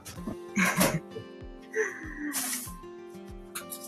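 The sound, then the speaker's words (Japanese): A knife chops cucumber for a salad on a cutting board in a steady series of dull thuds, with bursts of breathy noise and faint vocal sounds mixed in. “何まな板トントンして切ってる音だけ出してんだよ。”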